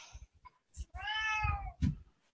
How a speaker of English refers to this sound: Hey, kitty. Uh, yes, Sawyer is voicing his, I don't know, disinterest in this topic.